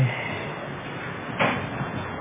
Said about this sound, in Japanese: 後ろドアを閉めていただけますか